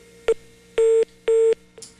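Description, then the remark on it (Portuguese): Telephone line tones after a call with the state's executive secretary of health drops during a broadcast interview, as the line is redialed: a short beep, then two longer steady mid-pitched tones with even gaps, and a final brief blip. No one speaks. “E enquanto a gente tenta refazer a ligação”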